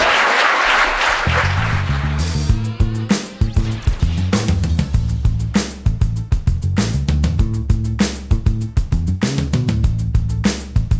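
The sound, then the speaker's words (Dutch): An audience claps loudly for about two seconds for two guests, Teun de Nooier and Kim Lammers, then a punchy, rhythmic music sting with a steady beat takes over and runs to the end. No one talks. “Geef een keihard applaus aan onze twee gasten.”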